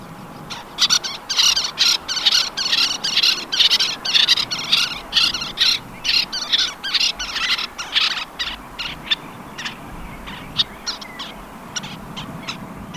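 A little tern calls in a rapid, steady series of sharp, high, scratchy chirps, clear over a quiet outdoor background, with the calls growing sparser toward the end.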